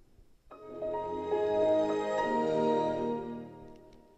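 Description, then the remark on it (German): The Windows XP startup sound played as a Windows XP computer boots up, a warm swelling chord of layered synth tones that blooms after a brief quiet start and gently fades over about four seconds, with no talking. “Das waren noch Sounds.”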